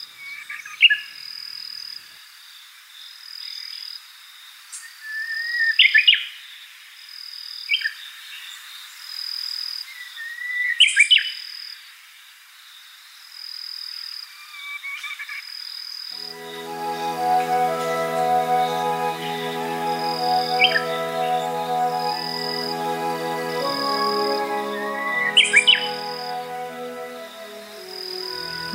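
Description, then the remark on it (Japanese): A Japanese bush warbler on Kamijima island sings its autumn song, heard on the sea wind blowing across the island: a few separate, clear phrases over a steady, high insect trill; about halfway through, a low, sustained humming drone rises and continues beneath the birdsong. “上島を吹き抜ける海風に乗って聞こえているウグイスの秋のさえずりこの季節にさえずっていたのも謎です”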